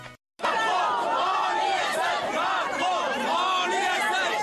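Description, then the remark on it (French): A loud crowd of far-left activists shouting and heckling a presidential candidate over one another, a dense, continuous clamour of raised voices that starts abruptly after a brief silence and stays intense throughout. “Je suis interpellé par des militants d'extrême gauche qui, s'ils veulent bien m'écouter, je vais leur répondre.”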